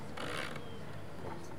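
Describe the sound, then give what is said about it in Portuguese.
A loud, steady mechanical whir of a food processor blending fruit and water at top speed to make juice, a dense grinding roar that runs continuously with slight surges, with no talking. “agora o que é que nós fazemos? Trituramos tudo isto.”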